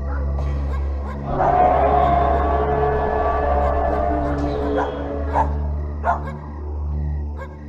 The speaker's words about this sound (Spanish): todos se percataron de que los aullidos se estaban acercando y dentro de poco se comenzaron a escuchar alrededor de las casas como si estuviera acechando algo.